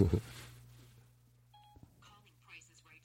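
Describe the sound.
A single short telephone keypad tone beeps mid-clip over a steady low hum, after a brief thump at the start; faint speech follows.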